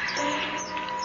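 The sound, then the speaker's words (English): A huge bat with a wingspread of at least four feet, flying alongside a car, squeaks in rapid, high-pitched chirps and twittering squeals, steady for about a second, with no voices. “As strange as the huge bat that flew alongside my car.”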